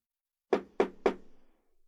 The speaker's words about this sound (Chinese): 敲门声。柳溪警觉的放下手中那本《密流之城》，认真的聆听。那声音不远不近，是在敲隔壁的门吗？